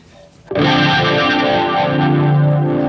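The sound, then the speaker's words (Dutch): An electric guitar played through an Electric Mistress flanger pedal: a loud, distorted chord rings out after a brief quiet moment and sustains with a slow, sweeping, jet-like whoosh. “Eh, eh, Electric Mistress van.”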